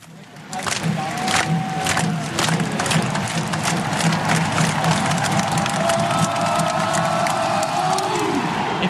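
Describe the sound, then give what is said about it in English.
A huge stadium crowd at a University of Florida Gators football game roars and cheers continuously, a dense wall of voices with scattered shouts and claps rising out of it, loud and steady throughout. “you've ever been to a University of Florida Gators football game, you've probably heard some of these cheers.”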